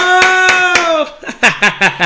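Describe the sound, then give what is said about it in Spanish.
Sharp hand claps, three evenly spaced over a long sustained voice, then a quicker run of four more alongside short, swooping vocal sounds. “Que, aplaudimos, güey, y ellos como traen los monitores.”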